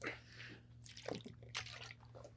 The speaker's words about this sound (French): Vas-y, je vais prendre une gorgée d'eau pour cela.